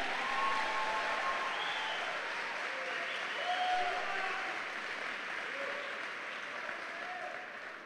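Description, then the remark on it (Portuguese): A large audience applauds the Lord for 22 years of Novidade de Vida, a steady, dense wash of clapping for several seconds with a few faint cheers or whistles rising above it, fading slightly toward the end. “Quem aplaude ao Senhor pelos 22 anos da novidade de vida?”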